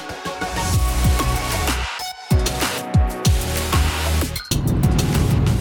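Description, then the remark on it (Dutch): A car's engine drones and rumbles from inside the cabin on a Saturday evening drive, with repeated low revving sweeps rising and falling over steady road noise, fairly loud and continuous throughout. “Ik zit op zaterdagavond in de auto, dan vind ik dat echt nooit een enkel probleem.”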